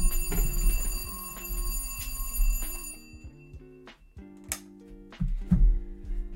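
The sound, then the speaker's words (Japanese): An alarm clock goes off with a melodic electronic tune, a run of stepping mid-pitched tones layered over a steady high whine, sounding alone without any voices. “目覚まし時計の音注意！”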